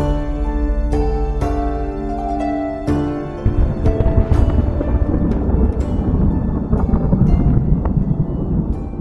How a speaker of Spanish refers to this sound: En medio de este reencuentro, la tormenta se avecina.